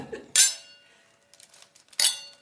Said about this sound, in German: Darum haben wir ja, ja da auch äh, ein Gläschen Alkohol stehen, weil das war quasi wie die Schiffstaufe oder so. Lass uns darauf anstoßen.